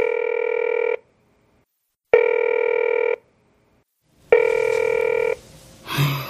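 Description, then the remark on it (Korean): A phone call goes unanswered, one of more than ten calls: the line rings out with three steady, buzzing ring tones, each about a second long and separated by short silent pauses, before a brief muffled click and rustle at the end. “유순이 열 번도 넘게 전화를 걸었지만 열 번 내내 받지 않았다.”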